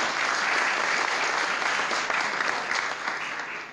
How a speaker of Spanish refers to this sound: ¿Cuántos dicen amén? Dar un aplauso, Señor, fuerte por eso, por eso es extremadamente importante.